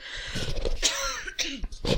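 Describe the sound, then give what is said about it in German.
A person clears their throat and coughs several times in quick succession, rough, raspy bursts with short pauses between them and no speech. “Moment, ich muss noch husten.”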